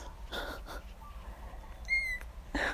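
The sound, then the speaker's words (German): A newborn kitten gives a single thin, high-pitched squeak amid soft rustling and shuffling, fairly quiet, with no talking, as it searches for its mother's nipple. “Ich glaube, das sucht einen Nippel. Suchst du deiner Mama ihren Nippel?”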